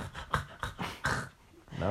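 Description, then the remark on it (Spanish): A person imitates a woman's choking snore with a loud series of rough, raspy gasping snorts in quick succession, ending on a strained, throaty rasp. “imagínate que encontraras a la mujer de tu vida y ronca como si fuera un león. Pues mira, me tocó muy cerca. Hasta que se ahoguen así.”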